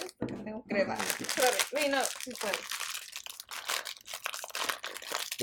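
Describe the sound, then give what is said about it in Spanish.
An ice cream wrapper crinkles and rustles as it's pulled open, a steady run of crackly plastic noise lasting several seconds, with a voice briefly heard near the start. “Entonces, vamos a empezar con un helado.”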